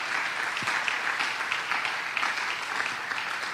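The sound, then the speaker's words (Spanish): A crowd claps steadily in applause for God, a dense wash of many hands beating at once, sustained and fairly loud throughout with no voices standing out. “Le demos un aplauso a nuestro Dios.”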